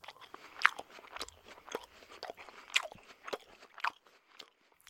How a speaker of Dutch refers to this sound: Om jullie te laten ervaren hoe, hoe het verschil is tussen iemand die misofonie heeft en geen misofonie heeft, laten we dit fragment horen. Dit is hoe iemand zonder misofonie smakgeluiden hoort.